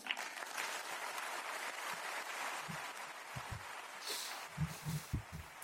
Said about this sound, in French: Voilà pour ces applaudissements depuis le Vatican hein, en faveur, en, l'honneur du président Emmanuel Macron qui a parlé pendant 29 minutes en ouverture de ce sommet pour la paix à Rome.